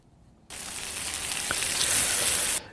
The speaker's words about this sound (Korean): 이게 저, 어떻게 보면 빗소리 같기도 한데 이게 치, 치, 고기 굽는 소리입니다. 한 번 더요. 고기 굽는 소리가 예, 노래 일부에 나가는 노래 중간에 나올 겁니다.